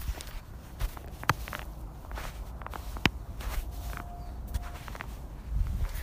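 Steady crunching footsteps of a person walking through snow, fairly quiet, with a few sharper clicks and a low rumble of outdoor background noise.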